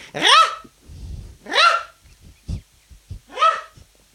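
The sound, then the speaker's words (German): A person, standing a little away from the microphone, whistles or voices three loud, rising calls imitating a Eurasian nuthatch, evenly spaced with pauses between, and soft rustling and small knocks fill the gaps. “ein typischer Kleiber, würde ich sagen.”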